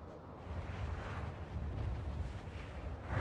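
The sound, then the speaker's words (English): A steady, broad rush of wind in a film scene, heard alone as the music and sound effects cut out during a slow-motion shot of Dom and Brian from the hood of a car, with low rumbling gusts, continuous, rising slightly toward the end. “When we cut to that medium shot, looking at Dom and Brian from the hood of the car, slow motion, the music and sound effects cut out, except for the wind.”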